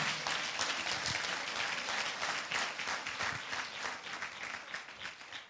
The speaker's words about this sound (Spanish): ¿Alguien lo cree? Vamos a dar un aplauso fuerte a Jesús si usted lo cree.